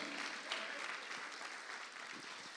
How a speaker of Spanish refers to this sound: Dele palmas fuerte al Señor entonces. Amén.